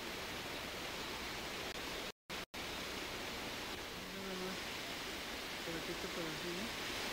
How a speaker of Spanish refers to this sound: Muy cerca de Tlaquepaque está el Parque Mirador Independencia, desde donde se puede ver la barranca de Oblatos y la cascada conocida como Cola de Caballo.